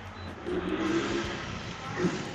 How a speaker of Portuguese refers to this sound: A moto de novo. A moto de novo. Caraca, esse tá cortando, hein? Caralho, por que tipo, tu passa tanta moto aí na frente, cara?